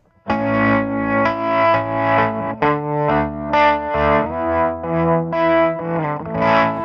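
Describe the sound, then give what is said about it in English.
An electric guitar played through a tremolo pedal with two modes combined at the same time, sustained chords throbbing in a wavering, uneven pulse. Fairly loud, slightly distorted, with no talking. “Which I think is one of the better sounds to come out of this thing is both of those at the same time.”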